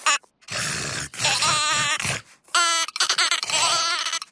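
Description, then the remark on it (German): A voice imitates a sheep that refuses to play, with several drawn-out, wavering bleats and a throaty grunt-like noise between them, loud with brief pauses in between. “Hm, das Schaf will auch nicht mitspielen.”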